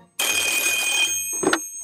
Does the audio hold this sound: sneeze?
no